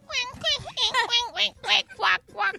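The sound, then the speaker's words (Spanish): A person mimics a duck with about eight nasal, raspy quacks in a quick, steady rhythm, each one short and loud. “Haz un pato, perdón.”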